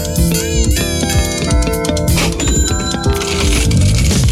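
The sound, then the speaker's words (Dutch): A cash register rings and coins clatter in a quick, rhythmic loop, loud, blended with dense musical tones throughout; no one speaks. “De kassa rinkelt.”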